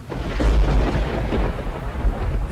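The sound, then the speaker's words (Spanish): A loud, close thunderclap from lightning striking very near, outside a funeral home, rolls into a deep, sustained rumble over the steady hiss of heavy, intensifying rain, with no voices present. “Un relámpago que cayó muy cerca de nosotros iluminó por un momento a las personas en la carroza.”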